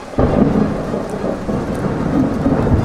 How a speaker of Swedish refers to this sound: Men Bellman, står du här ute i ovädret? Det öser ju ner.